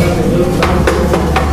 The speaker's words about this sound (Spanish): Tocó la puerta.